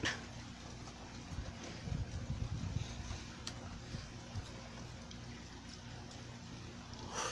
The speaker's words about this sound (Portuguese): O barulho da chuva é muito bom.